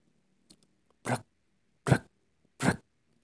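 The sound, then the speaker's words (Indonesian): Three heavy, evenly spaced stomps land at a slow steady beat like the footsteps of a group of people marching together, loud against a quiet background with a few faint ticks before them. “Kira-kira seperti itulah suaranya. Seperti suara langkah kaki yang sedang berbaris.”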